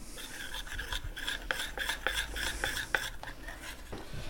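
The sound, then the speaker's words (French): A whisk beats a custard batter of eggs, sugar, flour and milk in a bowl, made for pastry cream, with quick, steady strokes, a rhythmic metallic scraping and swishing, fairly soft, with no talking over it. “Il ne Faut pas battre trop fort une fois que le lait est dedans, parce qu'il ne faut pas que ça mousse trop.”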